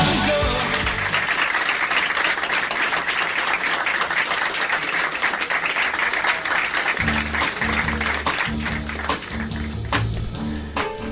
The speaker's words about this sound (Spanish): Bueno, estos merecidísimos aplausos que escucháis de fondo no eran para nosotros, sino que es una canción que viene muy a cuento